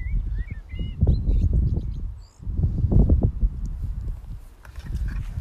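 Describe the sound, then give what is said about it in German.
Birds chirp outdoors in short, scattered bursts, fairly faint, over louder irregular low thumping and rustling that fills the whole scene; no one speaks. “In der Zwischenzeit gibt es Vogelzwitschern.”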